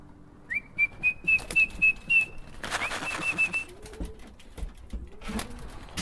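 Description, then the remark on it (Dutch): Pigeons coo amid a quick run of about six high, thin whistled notes, followed by a burst of rustling and soft clattering, with no voices. “Hier zijn de biestjes, Hier zijn mijn dufjes.”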